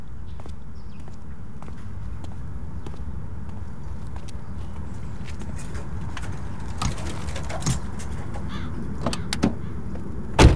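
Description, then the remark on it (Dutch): A Heijmans company electric passenger car being unplugged from its charging station at half past six: a few sharp plastic clicks and clunks near the end, over a steady low outdoor rumble, with no one talking. “Nu moet nog even van de laadpaal afhalen.”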